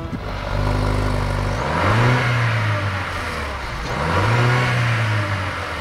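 A car with a panoramic roof, digital dashboard and wood trim has its engine cranked and caught, settling into a low idle before being revved twice in rising, swelling bursts, loud, with no one talking.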